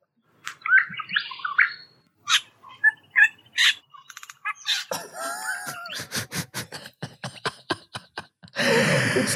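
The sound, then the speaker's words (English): A male songbird mimics a small water bird's call: sharp chirps and whistles, then a rapid run of clicking pulses, ending in a harsh, noisy burst. Clear, with no voices. “And this is what it sounds like when it's imitating a little water bird.”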